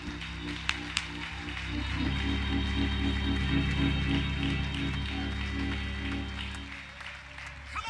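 An audience claps steadily and shouts, a dense continuous wash of applause and voices, while sustained low organ chords swell in underneath after the first couple of seconds.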